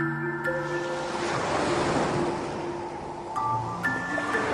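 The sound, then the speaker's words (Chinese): Gentle sea waves wash and lap against the shore of Nanquan Bay at sunset, with calm wind and sea: a soft, continuous hiss, swelling and easing, with faint tonal hums layered underneath and no voices. “落日西沉，南泉湾内风平浪静，偶尔传来几声海浪拍岸的声音。”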